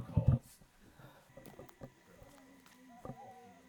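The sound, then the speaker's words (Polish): An owl in the Alentejo hoots softly, a few low, drawn-out calls spaced across a quiet night scene, with faint murmuring sounds in the background. “To jest sowa z Alenteju”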